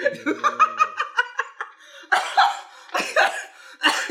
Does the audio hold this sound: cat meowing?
no